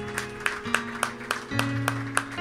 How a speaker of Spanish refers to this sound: Dale un fuerte aplauso a él, mi hermano. Gracias Señor.